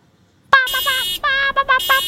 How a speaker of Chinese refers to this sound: 汽车的喇叭声在他们的前方一路直响